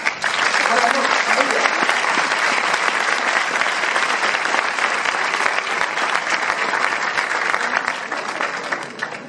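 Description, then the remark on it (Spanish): Sustained audience applause after a training session: a dense, steady wash of many hands clapping at once, loud and even throughout with no pause, tapering only slightly near the end. “Eso es todo, ese aplauso se merece más, ¿cierto?”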